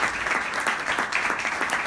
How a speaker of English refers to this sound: Of course, so warm welcome and a round of applause for finally making it to the pod studio